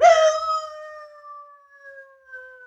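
A three-quarter Irish setter dog in Manchester Village, Vermont lets out a single long howl, opening with a rough burst and then holding a steady, slowly falling tone that trails off. It stands alone, with no talking.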